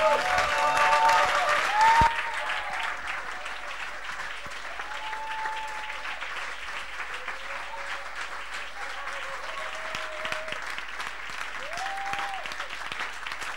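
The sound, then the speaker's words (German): Sustained, warm applause from a large audience honoring a man as he comes up to serve, a dense wash of clapping that stays steady throughout, with a few faint tonal sounds drifting above it and no one speaking. “And why don't we give him a very warm Und dass wir ihm herzlich Applaus geben.”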